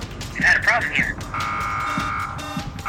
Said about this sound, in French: Les alarmes sonnent et tout s'affole.